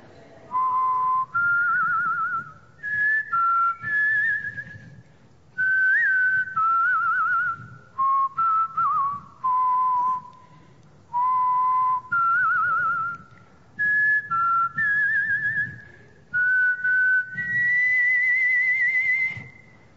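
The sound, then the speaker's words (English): A person whistles a slow, steady hymn melody, clear, in a series of short phrases separated by brief pauses, with no talking over it. “Okay, well, can you whistle for us then? Uh, pick a hymn and then whistle.”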